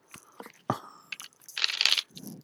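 Tarot cards being shuffled: a series of crisp, papery snaps and rustles in irregular bursts, building to a longer hissing riffle before a softer shuffle at the end. No one speaks.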